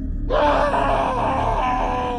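A loud, shrill scream bursts in after a brief silence and holds for about two seconds, strained and piercing, unbroken by any talk.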